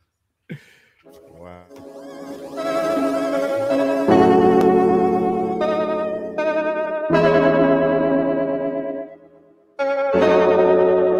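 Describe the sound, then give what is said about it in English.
A hip-hop instrumental beat with heavily processed, effect-laden melodic tones over a deep low end. It opens sparse, drops in fully around four seconds, and cuts out briefly near the end before returning. “So we're gonna take a listen to on the Beat Club podcast by … right now.”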